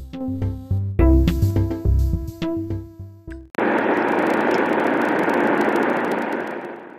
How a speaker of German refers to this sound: In der nächsten Aufnahme müsste ich mich leider für die schlechte Tonqualität entschuldigen. Die wurde, so wie man das hört, im Auto aufgenommen.